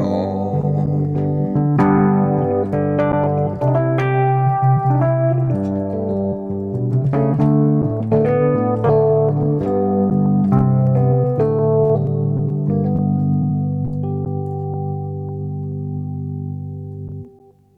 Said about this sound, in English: I love that Rhodes. I love the sound of that Rhodes piano. Hell yeah, dude. It sounds excellent.